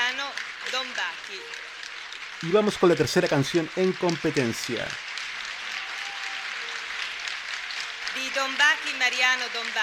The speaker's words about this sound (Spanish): Los aplausos siguen todavía.